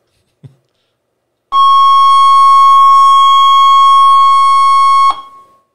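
A steady, high-pitched electronic tone from a frequency generator set to a higher frequency holds loud and unwavering for about three and a half seconds, then cuts off. A brief faint click comes just before it.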